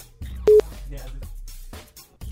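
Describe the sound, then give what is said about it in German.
A short, sharp electronic phone-line tone sounds once, loud, after a caller hangs up on a radio call-in in a studio, cutting through people talking. “Ah, er hat aufgelegt.”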